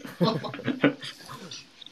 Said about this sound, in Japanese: ちなみに誰か泣いてましたって。誰か泣いてましたけど。